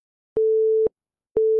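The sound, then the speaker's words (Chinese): A steady mid-pitched busy tone sounds from a mobile phone after the other party hangs up, beeping on and off in an even rhythm, each half-second beep separated by a half-second of silence, with no voices. “话刚说完，手机里就传来嘟嘟嘟的提示音，显然对方把电话挂了。”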